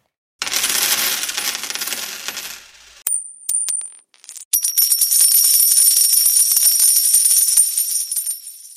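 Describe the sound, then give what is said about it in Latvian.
Small euro cent coins spill and rattle onto a hard surface, followed by bright ringing clinks and a longer shimmering jingle as they settle, fairly loud with no voices, played as a quiz sound in Latvia. “Kas tur skanēja? Centi.”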